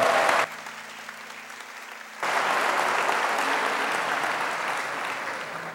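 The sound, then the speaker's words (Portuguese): Loud applause from an audience applauding God, a dense wash of clapping that briefly drops to a softer patter with a low hum, then surges back strong and tapers slightly toward the end. “Então aplauda Ele bem forte em toda a tua vida.”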